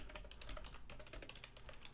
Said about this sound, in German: Auf deiner guten mechanischen Tastatur, die so schön ja, klappert.